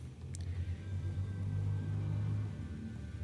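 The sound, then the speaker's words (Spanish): A motorcycle passes by, its low, droning engine rumble swelling toward the middle and then easing off slightly, steady and unbroken throughout, with no one speaking. “¿Una moto? Bueno, ya pasó.”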